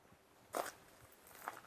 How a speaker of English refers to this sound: Now, the soundscape at Wild Sanctuary itself was reduced to the crunch of our own footsteps. No bird song, no insects, only some wind in the blackened oaks and an occasional faint clank of falling debris.